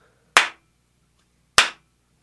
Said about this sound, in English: like the reel to reels right in the middle of them. And when you clap your when you clap your hands, I'm gonna do this. We'll see if we can get it.